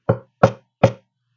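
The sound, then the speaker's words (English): Three firm knocks on a rarely used exit door, evenly spaced about 0.4 seconds apart, loud with a solid, resonant thud, followed by silence. “all of a sudden, on the far exit door, I call it the far exit door, the one that we hardly ever use, I hear a very uh, distinct knock, not like a little tapping this time.”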